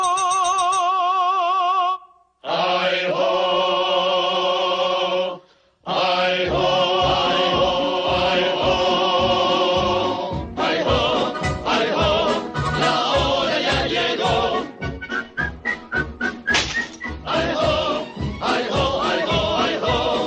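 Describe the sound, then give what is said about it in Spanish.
A cheerful whistled marching tune, the whistling song of cartoon dwarfs, plays over bright orchestral accompaniment, settling into a steady bouncing beat after a couple of brief pauses near the start. No one talks. “quizás muchos de ustedes ya estén silbando, yo lo estaba haciendo, yo lo estaba haciendo, es, inevitable escuchar a los enanitos y no ponerse a, a, que silbar.”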